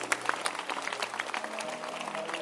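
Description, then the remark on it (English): An audience claps their hands together for the Paraclete in dense, continuous applause, many overlapping sharp claps forming a steady crackling wash, with a low sustained hum underneath. “Stand up and clap for the Paracletos.”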